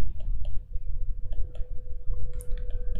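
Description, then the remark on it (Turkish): Several sharp, light clicks sound at irregular intervals as a retractable pen is pressed, over a low steady hum with no one speaking. “Ulan şu kalem şeyini aşağı alamadım.”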